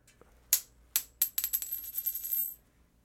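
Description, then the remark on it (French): A tossed toonie (Canadian two-dollar coin) lands on a hard surface with a bright metallic clink, bounces a few times, then rattles and spins in a quickening, settling whir before going still, landing tails, polar bear side up. No one speaks. “Elle a un toonie dans les mains et elle va procéder au lancer de la pièce de monnaie.”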